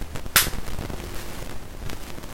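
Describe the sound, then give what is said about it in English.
A single sharp, loud smack imitated by a person's voice, like a full wind-up slap across the face, bursting out and cutting off almost instantly against a quiet background. “Eli just drops the Froot Loops and just gives him like a full wind-up slap across the face”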